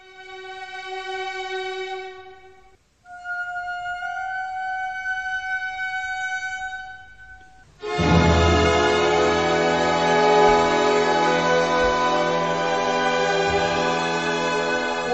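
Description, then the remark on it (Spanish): A sustained musical chord with an appoggiatura: two held, slightly dissonant sonorities lead into a louder, fuller chord that resolves and rings steadily to the end, with no voices; this is Wagner's enigmatic chord, also called the chord of love, first heard around 1864. “Pues aproximadamente en 1864 se escuchó por primera vez ese acorde en la historia de la humanidad.”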